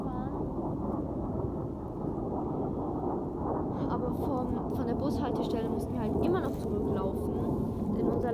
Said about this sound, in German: Oh Gott, das Flugzeug ist safe richtig laut.